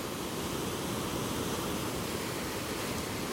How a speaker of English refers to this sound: It's funny how you get the sound of the ocean here without there being an ocean. these these uh, these waves are huge.